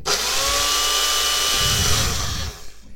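A smoothie blender motor whirs loudly and steadily with a high, grinding whine for about two and a half seconds, then cuts off abruptly, leaving brief faint rattling.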